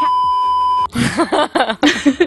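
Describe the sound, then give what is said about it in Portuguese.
A steady electronic censor bleep over a swear word holds a single pitch for just under a second, then cuts off as people begin talking and continue animatedly after it. “Bom, a gente pode bipar é porque, sempre, né?”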